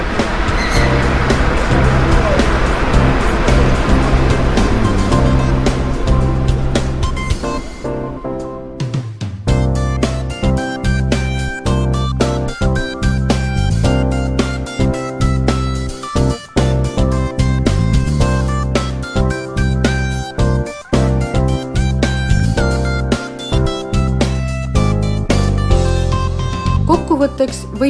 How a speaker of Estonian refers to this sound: no mina täna olengi oma teenuse kasutaja, ehk siis tööle ja koju ma sõidangi rongiga. täna küll veel sinivalge rongiga ja vana heli saatel